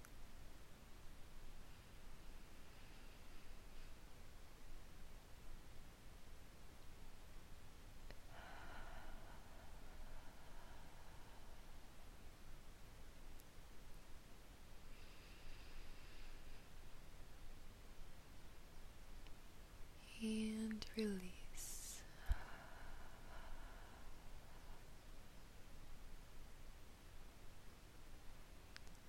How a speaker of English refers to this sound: so I want you to close your eyes and take a deep breath in through the nose. And release through the mouth. Do that two more times.